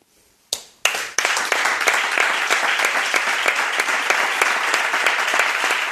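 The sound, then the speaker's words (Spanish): A crowd breaks into sustained applause after a few opening claps, dense, steady and loud, filling the space with many hands clapping at once. “este aplauso para ti”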